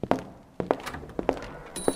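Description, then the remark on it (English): Footsteps of people walking back to their hotel through the streets at night, at an even, unhurried pace, about four sharp thudding steps over two seconds, each a short knock with a slight double impact. Nobody speaks. “They walk back to the hotel.”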